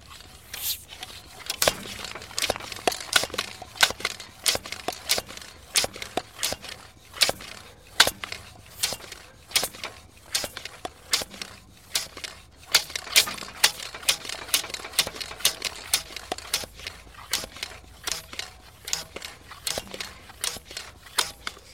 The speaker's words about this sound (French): La pompe. Qu'elle soit associée à un vélo ou un tensiomètre, la pompe a toujours la même physionomie sonore. Un aller-retour, une inspiration et une expiration plus ou moins sonores en fonction de la grosseur de la pompe.